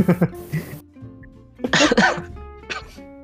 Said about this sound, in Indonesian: aduh wah batuk batuknya, aduh minum dulu minum dulu